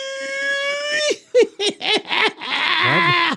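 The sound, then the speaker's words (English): A person imitates a pig squeal: a long, high, steady note breaks into a quick string of short rising-and-falling yelps, then ends in a raspy, drawn-out squeal, loud. “that's a nice pig's call, man.”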